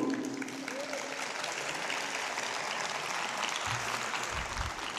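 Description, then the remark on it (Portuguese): Steady, dense applause from a large crowd at a show, given for the musicians, fills the whole stretch, a continuous wash of clapping with a few low thumps near the end. “Antes de dar continuidade ao nosso espetáculo, eu gostaria de pedir mais uma salva de palmas para uma parte importante dessa festa, que são os músicos.”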